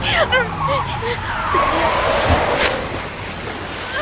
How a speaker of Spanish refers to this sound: ¿Qué es eso? Es el río. Está inundado, no podemos cruzar.